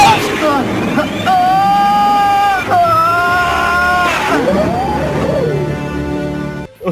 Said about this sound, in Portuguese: carro do leite! Ó o carro do leite!